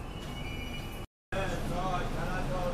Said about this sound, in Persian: یه این صدا رو گوش بدین صدای فروشنده های متروه